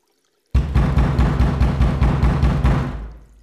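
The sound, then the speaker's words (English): Water suddenly gushes from a tap in a steady, loud rush with a faint pulsing rhythm, then tapers off as it's shut. No one speaks. “Don't run the water.”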